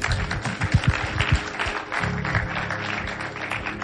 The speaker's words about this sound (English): Clap your hands for God.